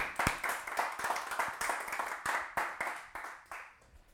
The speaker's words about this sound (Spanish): Si tú lo crees, dale un aplauso al Señor. Vamos, give the Lord a hand clap, guys. Come on.